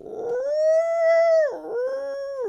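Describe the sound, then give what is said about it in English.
A voice mimics a peacock call that comes out as a wolf-like howl: one long, rising, sustained wail that dips, then a shorter second wail, loud with no talking. “I don't think that's a peacock noise. That's like an injured wolf”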